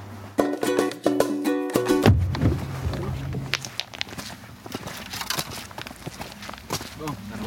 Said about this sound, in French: on marche un petit, euh, un petit chemin.